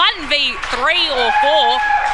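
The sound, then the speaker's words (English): Crowd cheering at a football match as a player takes a mark near the goal square: a loud, steady roar with several voices shouting over it at rising and falling pitches, sustained for a couple of seconds. “But geez, you can hear the crowd, and the crowd tells the story.”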